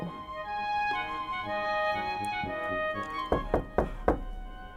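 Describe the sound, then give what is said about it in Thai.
A prince in disguise knocks on a door: four firm knocks on a wooden door in quick, slightly uneven succession, fairly loud over a soft, sustained musical background. “แต่เจ้าชายก็ไม่ละความพยายาม ส่งเอาสีน้ำตาลกับสีดำแต้มใบหน้า ปลอมตัวใส่หมวกหลุบลงมาปิดหน้า แล้วเสด็จไปเคาะประตู”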